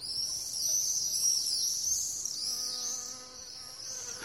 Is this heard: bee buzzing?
yes